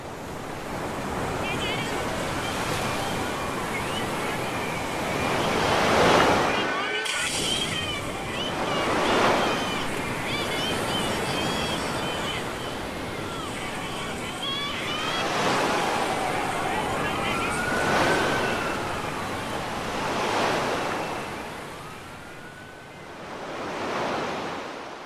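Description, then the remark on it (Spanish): Sea waves crash against rocks in steady succession, each surge swelling into a loud roar every few seconds over a constant wash of churning water. “El golpe del mar en la piedra me acuerda a la acción del policía en la manifestación.”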